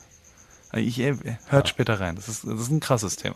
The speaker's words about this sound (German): Hörst du die Grille im Hintergrund?